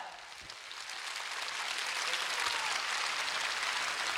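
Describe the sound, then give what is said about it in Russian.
Audience applause at a concert in Moscow for a performer: a dense, steady wash of many hands clapping, swelling slightly in the first second and then holding at a fairly loud, even level with no voices on top. “Это же тебе аплодисменты!”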